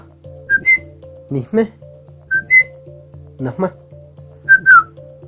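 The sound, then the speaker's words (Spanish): Mazatec whistled speech: clear, high whistled tones in three short phrases of rising and gliding notes, set over a steady low drone with brief soft clattering sounds between them. “El mazateco chiflado nace a través de la necesidad de comunicarnos a grandes distancias.”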